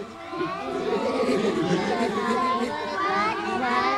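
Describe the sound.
A busy crowd of children playing and chattering at once, a steady, dense wash of overlapping young voices with occasional higher shouts, moderately loud throughout.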